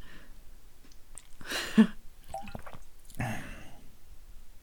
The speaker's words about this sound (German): Ja, du hast getrunken. Richtig.